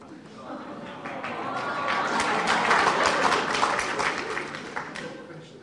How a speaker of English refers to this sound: In fact, I hear you even clap when you hear it, which is more than what you would do if you were listening to me.